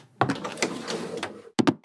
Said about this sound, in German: Sie ist die Strickleiter nach oben geklettert und klopft am Fenster.